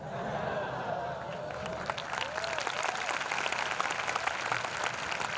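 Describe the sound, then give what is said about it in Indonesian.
An audience at an Islamic religious lecture bursts into steady applause during the preacher's opening remarks, lasting several seconds, dense clapping building after the first couple of seconds, with a faint murmur of voices underneath. “Nah, ini ini dibilangin baru mau kodima belum cerah kok malah tepuk tangan apa disuruh panjang apa suruh berhenti ini.”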